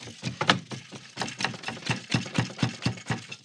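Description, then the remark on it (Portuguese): Rapid, rhythmic wooden clicking and clattering as a small wooden toy with several wooden gears is turned by hand, a steady ratcheting pattern of dry knocks with no talking. “manipulando um brinquedinho com várias engrenagens de madeira”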